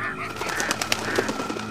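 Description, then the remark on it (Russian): Geese and swans honk and call overlapping one another as they fly, a steady chorus of rough, repeated cries at moderate loudness over a low background rumble. “Видит, летят за ними гуси-лебеди.”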